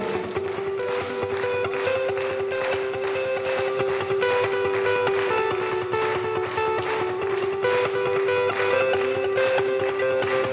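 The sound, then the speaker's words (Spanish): A church audience claps steadily in rhythm as the service closes, the sharp claps landing on a regular beat over sustained keyboard-like musical tones, with no talking. “Vamos todos a aplaudir.”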